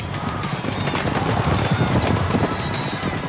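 Racehorse hooves gallop in a dense, rapid drumming rhythm, loud, sustained throughout with a broad rumble and no voices.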